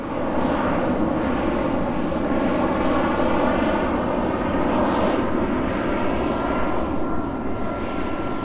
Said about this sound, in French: Il y a des avions qui passent. Euh, c'est ça, ils passent euh, en atterrissant, ils arrivent euh, par là. Et par contre, quand ils repartent, ils passent au-dessus en ce moment. Il y en a de plus en plus ce dimanche.